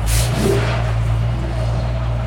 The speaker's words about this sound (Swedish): Nu startar en till maskin här.